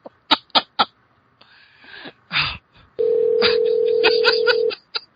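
A Skype call being placed: a few sharp clicks, then a steady electronic calling tone that holds for about two seconds, fairly loud, before cutting off.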